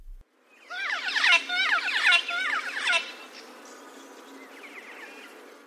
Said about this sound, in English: This cuckoo shrike is also well known for its complex, melodious trilling call.